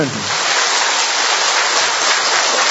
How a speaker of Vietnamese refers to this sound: một tràng pháo tay thật lớn để chúng ta chào mừng những anh chị em này to lên anh chị em to lên lên to nữa lên